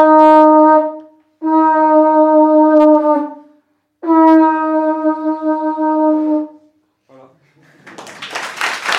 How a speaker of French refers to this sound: Donc pour finir, je vais juste euh, souffler peut-être une ou deux fois dans, dans la conque.